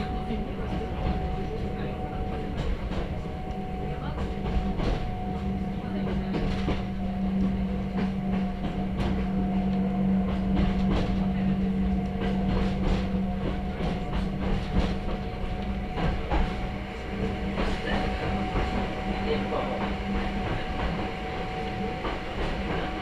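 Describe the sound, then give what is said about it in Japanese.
A Hakone Tozan Railway mountain train in Japan runs from Hakone-Yumoto toward Ohiradai through the mountains, steadily with a continuous low rumble and rattling, faint clicking of wheels and a sustained tonal hum throughout, with indistinct voices mixed in at times. “箱根登山鉄道 箱根湯本→大平台”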